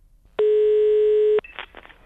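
A single steady telephone ringing tone as a call is dialed, loud and clear, sounds for about a second and then cuts off, followed by a few faint clicks and line noise.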